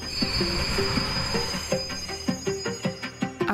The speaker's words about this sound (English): As the train arrived, the crowd surged forward. I was too close to the platform edge, lost my balance, and fell into the path of the oncoming train